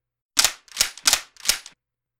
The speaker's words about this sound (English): I froze at the sound. I'd heard it before in real life, and I'd heard it on TV a thousand times. It was unmistakable. It was the sound of weapons being cocked.